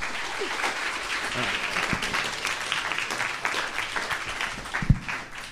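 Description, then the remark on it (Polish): An audience applauds a guest being welcomed in, a dense wash of many hands clapping at once, fairly loud and sustained throughout, with a few scattered whoops or voices rising briefly within it. “wielkie brawa!”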